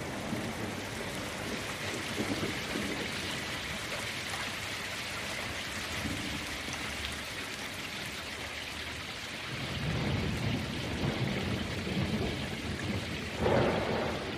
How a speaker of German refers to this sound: Stimmt, jetzt donnert es gerade. Also ich kann sehr empfehlen, den Anfang des Tracks so zum Entspannen höre ich mir auch manchmal an. Bei der Anfang beginnt ein bisschen spooky, finde ich.